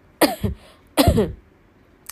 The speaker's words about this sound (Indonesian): Kenapa gue jadi batuk?